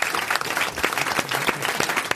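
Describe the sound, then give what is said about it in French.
A crowd applauds steadily after Florian Gazan gives the correct answer, Jacques Fabry, a dense patter of many hands clapping at an even loudness throughout, with faint voices mixed underneath. “Qui s'applaudit, qui s'applaudit.”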